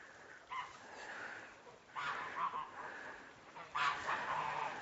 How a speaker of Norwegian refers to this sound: Men han har drevet og ropt etter de andre gjessene har hatt mest lyst til å gå sammen med de, så nå skal han få sjansen.